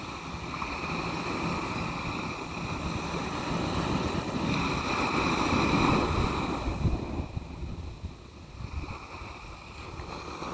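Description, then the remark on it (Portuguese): Ocean waves wash ashore in a continuous rushing roar, swelling into a louder surge midway and then drawing back into a softer, hissing wash. No voices are heard. “Deixamos a água do mar lavar-nos, libertar-nos deste peso.”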